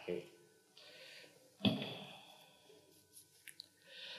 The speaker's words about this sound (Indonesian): Dan sebelum kita menutup acara pada malam, eh, hari ini, kita boleh minum dulu Romo ya. sambil seruput tur.